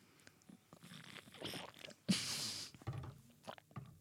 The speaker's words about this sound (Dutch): Je mag, je moet hem omhoog trekken. Je moet eerst dat die pot een beetje zo doen. Ja, dus gewoon een beetje omhoog. Ja, ja. En dan gaan we allebei een slokje nemen.